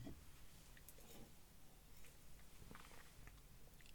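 Quiet mouth noises of someone drinking: wet gulps and swallows with small clicks and smacks, repeated irregularly over a steady low background hum, with no talking.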